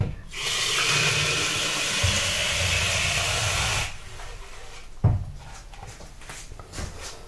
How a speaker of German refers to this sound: Aber wir wollen ja, dass der Sound gut rüberkommt. So, jetzt mache ich mal hier Wasser rein.